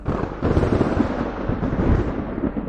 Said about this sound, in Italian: Il cielo stesso tremò di fronte a quella scarica. Le scure nubi fuggirono per lasciare spazio al re degli elementi. Quando il tuono mise tutti in ginocchio, erano ormai passati già 5 secondi.